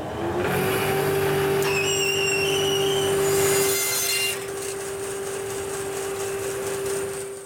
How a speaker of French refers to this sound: Alors là, je suis en train de créer un modèle en, bois. En fait, c'est pour, euh, euh, créer un moule, pour, pour marteler du euh, laiton à l'intérieur. Et, et, donc voilà, maintenant je vais scier à la scie à ruban.